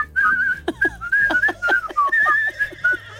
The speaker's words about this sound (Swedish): Att om man vill ha hatiska blickar på stan då ska man glatt gå runt och vissla julmusik. Då tycker folk inte om en. Jag kan inte låta bli, jag har dem i huvudet. Så går jag och visslar.